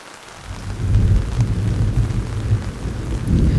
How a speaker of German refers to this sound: Von weitem höre ich Donner grollen und ein Blitz zuckt zwischen den grauen Wolken.